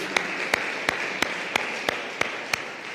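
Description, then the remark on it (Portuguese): A standing church audience applauds Christ, clapping together in a steady, even rhythm, about three sharp claps per second, over a continuous wash of crowd noise, with no clear voices. “E assim como estão de pé, dê um aplauso a Cristo, Ele merece, Ele é nosso Redentor, Ele é nosso Salvador, não há nadie como Ele.”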